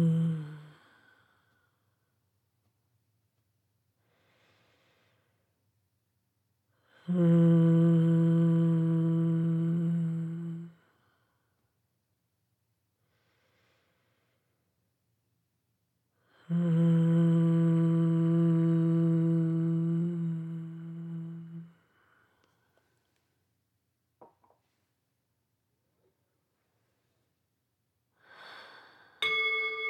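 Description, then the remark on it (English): A voice hums two long, steady, low-pitched tones, each lasting about four to five seconds, imitating the buzzing of pollinators, with quiet pauses and soft breaths between them. “I invite you to come back and to ground to the present by humming, our way of buzzing like the pollinators.”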